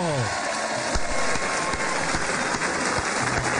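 A crowd claps steadily to welcome a guest, a dense, continuous wash of applause, loud and sustained for a few seconds with a faint low tone fading out at the start.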